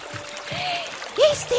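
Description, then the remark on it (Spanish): A steady gush of water pouring out in a stream, with a continuous hiss of flow and a few bubbling, gurgling tones rising over it, moderately loud. “Luego de caminar por varias horas, llegaron hasta un gigantesco árbol del cual brotaba un inmenso chorro de agua”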